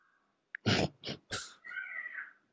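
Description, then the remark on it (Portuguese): A pet parrot lets out a few loud, harsh squawks in quick succession, then a wavering whistled note, with no one talking. “Eu tô ouvindo o teu papagaio subindo, aí né, demais.”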